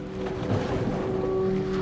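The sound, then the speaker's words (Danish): Waves beat hard against a fishing boat's hull in a steady, rough wash over the constant low drone of its engine, in the dark on the waters between Denmark and Sweden, fairly loud, with no voices. “Bølgerne slår hårdt mod båden, og der er flere, der ligger søsyge på kahytskålet.”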